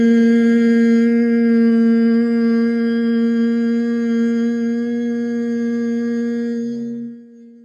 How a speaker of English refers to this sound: So I want you to hum loudly enough so that you can feel that vibration in your sinuses, in your head. So let's begin with that hum. Hum here with me.